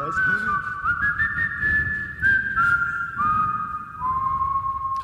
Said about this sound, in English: Here's the thing: the reverb did not make you sound better because you were not on key. And this is I don't say this to be mean. It did make it spookier though.